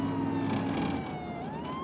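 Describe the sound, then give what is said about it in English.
A police car siren wails steadily, its tone sliding slowly downward and back up, loud over a low rumble of traffic. “Um, he's pointing something at the cop car.”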